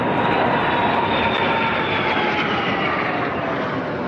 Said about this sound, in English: After the parade came the 82 gun salute, and really, the only thing that can top an 82 gun salute is a 70 plane flyby.